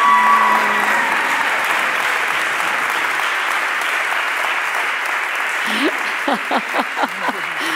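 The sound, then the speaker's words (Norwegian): Sustained audience applause, a dense steady clatter of many hands clapping, loud throughout; near the end a few voices and cheers rise briefly over the clapping. “Jeg tror vi gir dem igjen en ordentlig applaus, og så kommer du her”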